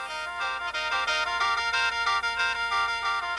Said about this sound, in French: Alors, le kaen, c'est un orgue de bouche dont nous allons écouter un extrait en fond, et on dirait une grosse flûte de pan dans laquelle on souffle, et qui ferait un son entre l'harmonica, l'accordéon ou la cornemuse. C'est assez étonnant, écouter.